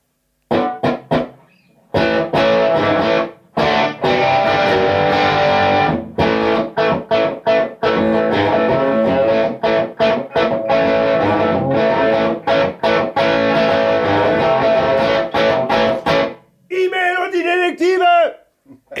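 A loud, distorted Gibson SG electric guitar played through a Vox amplifier: dense, crunchy strummed chords with brief choppy stops, ending with a few sustained, wavering notes.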